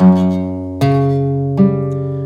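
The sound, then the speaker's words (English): Three plucked guitar chords ring out one after another, each attack clear and evenly spaced, with notes sustaining and overlapping into a full, resonant tone. Fingerpicked as a sped-up roll: thumb, first, second and third finger, then a drag down across the strings. No voices. “Starting on the highest string of the guitar with your third finger, just pull it across all the way down.”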